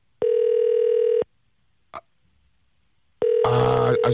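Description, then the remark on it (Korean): An outgoing phone call's ringback tone: a steady, mid-pitched electronic tone sounds for about a second, pauses with a brief click in the gap, then rings again under a burst of rough noise. “전화 받으셔야 되는데요.”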